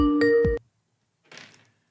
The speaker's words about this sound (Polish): O, już ktoś dzwoni nawet.